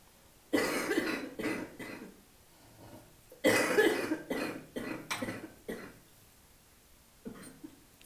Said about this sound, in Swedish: Och till alla er som hostar ibland, precis som jag, inget att skämmas för, kroppar gör vad de gör. Mycket mysigare att ni är kvar, hostar lite och sen är ni kvar, ingen behöver gå ut.